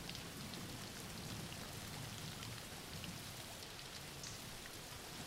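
Steady rain falls without pause, a dense, even hiss of countless drops spreading across the whole clip at a constant moderate level, with no voices or other sounds.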